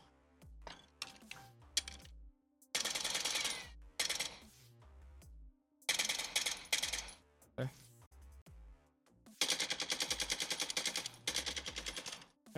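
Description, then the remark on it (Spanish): Video game gunfire at a firing range: bursts of rapid automatic shots in three loud stretches, separated by single sharp shots and metallic clinks of falling shell casings. “Vamos a ver si puedo entrar aquí a. Al firing range.”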